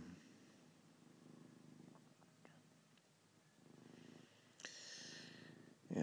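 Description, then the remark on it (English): A cat purrs steadily and loudly at 4:48 a.m., a low rumbling rhythm pulsing in waves with a faint airy hiss, and a brief louder rustle near the end. “And now baby's purring so loud I can't go back to sleep.”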